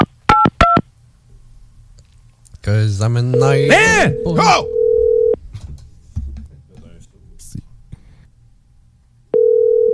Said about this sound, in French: comprenez-nous bien, on essaye d'appeler des contacts dans nos téléphones.